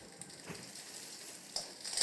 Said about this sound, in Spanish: Con rapidez abre una gaveta para sacar la pasta, la quiebra y la suelta en el agua hirviendo.